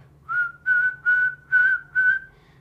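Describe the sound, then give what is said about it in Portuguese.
Someone whistles a call to cats: five short, steady mid-high notes on the same pitch in an even rhythm, with a low hum underneath and no talking. “E você chamar os gatos, por exemplo, à noite, eu faço assim com a minha”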